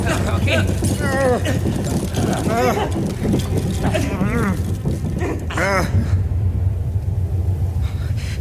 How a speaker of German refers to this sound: Wir müssen aus diesem Keller raus. Wenn das, wenn das Beben wieder einsetzt, dann ist Schluss mit lustig.